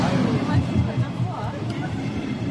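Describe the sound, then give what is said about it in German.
A train rolls into a station with a steady, loud rumble and a broad mechanical roar that holds evenly throughout, while faint voices murmur underneath. “Apropos im Sinne des Erfinders, die Bahn kommt.”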